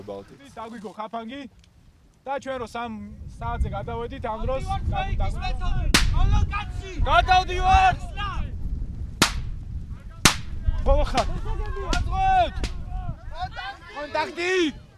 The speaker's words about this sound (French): Il y a des simulations d'embuscade, les encadrants allument des pétards. À ce moment-là, toutes les recrues euh, s'allongent sur le sol et elle se replie méthodiquement vers une zone sécurisée.